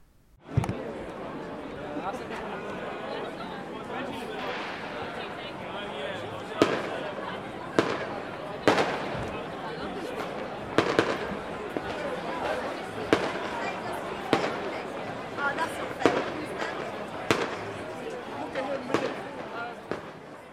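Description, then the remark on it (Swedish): A series of sharp, booming cannon blasts goes off at irregular intervals, a 32-shot salute at a celebration at Ringsberg in Växjö, Sweden, over a steady murmur of a crowd chattering in the background. “Det hölls tal, kanoner saluterade med 32 skott och landshövding Mörner invigde kalaset.”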